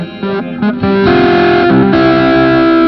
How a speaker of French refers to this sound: La Proco Rat Distorsion.